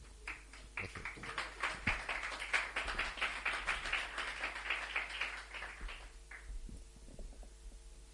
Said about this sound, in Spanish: Un aplausillo y eso.